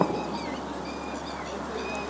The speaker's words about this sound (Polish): Przelatują nade mną ptaki.